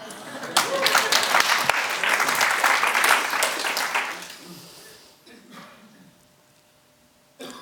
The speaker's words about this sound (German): Alle klatschen.